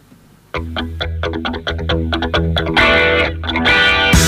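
A loud heavy metal rock song kicks in abruptly, driven by distorted electric guitar chords and pounding drums with crashing cymbals, building in intensity with no one talking.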